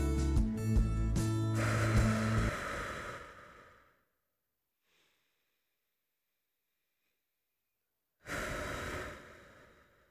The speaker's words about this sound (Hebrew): אוקיי, okay, אז uh, אני מקווה שאתן במצב רוח טוב יחסית, ואם לא, בואו ננשום ביחד.